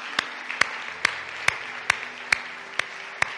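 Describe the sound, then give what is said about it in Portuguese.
Congregation clapping in unison as applause for Christ: about eight sharp, evenly spaced claps in a steady rhythm, a little over two per second, over a faint low hum, with no talking. “Dê um aplauso a Cristo na vez mais.”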